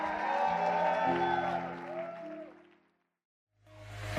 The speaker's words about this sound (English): Somebody give a hand or clap to Jesus. If you feel aroused, give him praise and a shout.